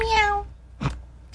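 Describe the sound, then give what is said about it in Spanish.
A person briefly imitates a cat's meow with a short, fairly loud, nasal cry, followed by a couple of brief breathy noise bursts. “Entonces, adicional a eso, de ponerle un, rugido que suena como un gato, porque un Hellcat.”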